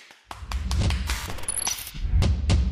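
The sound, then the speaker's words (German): An applause sound effect: a crowd clapping in a dense, crackling burst that starts abruptly and stays loud and steady for a couple of seconds. No one speaks. “Applaus!”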